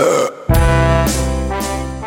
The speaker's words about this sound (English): Burped right in his face. You couldn't hold it in or. It was totally involuntary.